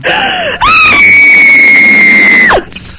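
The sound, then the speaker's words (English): A woman lets out a short high shriek, then a long, loud, sustained scream that holds one piercing pitch for nearly two seconds before breaking off sharply, with no talking around it. “they don't like hearing the screaming lady”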